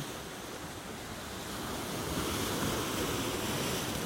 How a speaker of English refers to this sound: Anyway, I hope you'll enjoy this soundscape and um, the sounds of the ocean from this inland lake, one of Canada's five Great Lakes in Ontario. Lake Ontario.